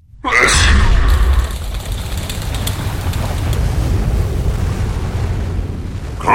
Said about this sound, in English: Barong opened his mouth in his sleep and let out a mighty sneeze that shook the very ground on which they were standing.